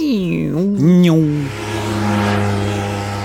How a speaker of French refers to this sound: C'est ce qu'il se passe quand vous entendez une voiture se rapprocher de vous à grande vitesse. Le son qu'elle émet est plus aigu, fréquence plus haute. Mais celui-ci devient grave quand la voiture s'éloigne, fréquence plus basse.